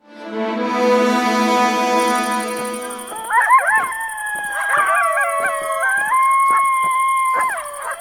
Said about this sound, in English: Geez, you guys sure do have a coyote problem out here, don't you?